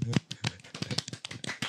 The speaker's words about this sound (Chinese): 对， 我们今天有置入， 很难得， 一轮的掌声。